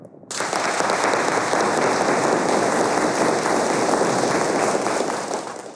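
About 30 to 35 heirs of one family, heard over a telephone, break into applause all at once when asked. It is a dense, steady wash of loud clapping that holds for about five seconds before easing slightly at the end.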